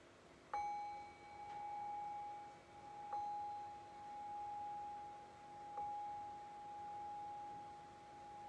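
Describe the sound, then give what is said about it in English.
A meditation bell is struck three times at slow, even intervals to cue the end of a guided meditation, each clear, resonant tone ringing on and overlapping the next. No voices. “And I'll cue that by ringing the bell three times.”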